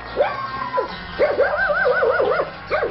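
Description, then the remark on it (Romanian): A guard dog barks and yelps in a rapid, excited series of high, rising-and-falling cries, loud, with no one speaking, at a tall chained and padlocked gate to an estate on Belina island. “Au pus gard, au pus câine, au legat lacătul, iar cheia e la Dragnea”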